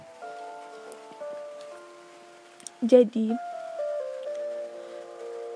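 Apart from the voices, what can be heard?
rain falling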